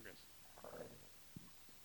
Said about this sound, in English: Oh. What? You got some gas? That's a little belch. Yeah? Mm-hmm. It wasn't very loud. It was very little.